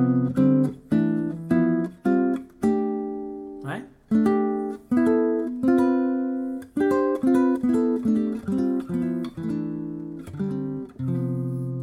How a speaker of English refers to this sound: Right? That's the sound of me harmonizing C major using fourth intervals, right?